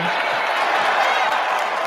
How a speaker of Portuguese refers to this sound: Gente, peraí que, eu, que merece uma salva de palmas aí, gente, merece.